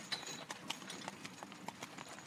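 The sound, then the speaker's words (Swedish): Steady clip-clop of horse hooves pulling a carriage slowly through fields in late summer, a regular unhurried rhythm of sharp knocks, with a faint rolling rumble underneath and no voices. “Kusken spände då tyglarna och lät istället vagnen sakta rulla fram genom fälten.”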